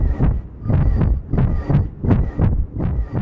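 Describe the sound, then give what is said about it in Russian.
A recreated steady, heartbeat-like whooshing pulse throbs about twice a second, muffled, imitating a pulsing noise heard inside the head like blood pounding; no one speaks. “Вот этот звук, который вы за последние пять минут слышали уже несколько раз, максимально близок к тому, о чем я говорю.”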